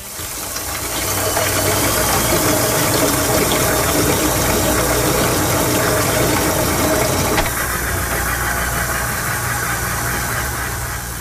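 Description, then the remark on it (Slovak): A potter's wheel spins with a steady motorized whir and low hum, joined by a wet, gritty rubbing. The tone shifts slightly partway through but keeps going without pause, with no voices. “Ide totiž o zvuk hrnčiarského kruhu.”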